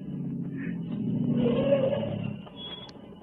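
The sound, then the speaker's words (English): A low engine rumble swells as a car draws nearer along the road, peaking briefly before easing off; no voices, just the steady drone of the approaching vehicle. “And then I heard another sound on the road. There was a car coming.”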